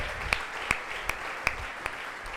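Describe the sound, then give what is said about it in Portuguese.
A church audience applauding loudly for God, a dense, steady wash of clapping with several sharper, louder claps landing at a roughly even beat. No voices are heard. “Aleluia, aplauda bem forte a Ele.”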